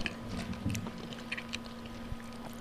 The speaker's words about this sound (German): Jetzt müssen uns die Hörer wieder beim Eschen zuhören, ne? Es ist nicht reich, dass die Hörer uns beim Saufen zuhören, jetzt auch noch beim Schmatzen.